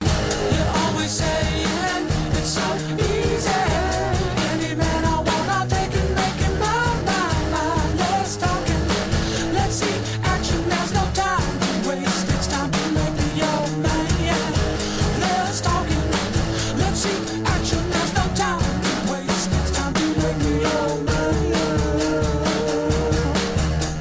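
A rock song plays loud and steady for the whole stretch, with dense guitars and driving drums keeping a constant beat and no pauses.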